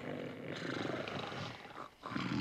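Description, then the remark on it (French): Many sleepers snore at once, a dense layer of low, raspy rumbles that overlap into a continuous drone, dipping briefly toward the end before swelling back, with no talking. “Puis, peu à peu, des ronflements se mirent à monter. À ces ronflements vinrent bientôt s'ajouter d'autres ronflements.”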